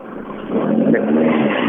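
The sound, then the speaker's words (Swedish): A rally car in Sweden, one of very few with a star in the middle of the front of its bonnet, roars past on stage SS8, its low droning engine growl swelling louder after a moment and holding a steady, rough pitch before fading slightly. “En av väldigt få rallybilar i Sverige som har en stjärna mitt fram på motorhuven.”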